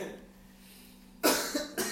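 After a quiet stretch of low background hum, a person coughs in two loud bursts, a harsh cough followed by another about half a second later.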